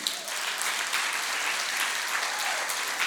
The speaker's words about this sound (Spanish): Le dan un aplauso al Señor.